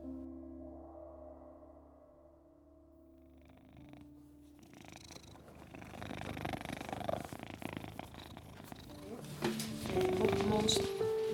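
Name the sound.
cat purring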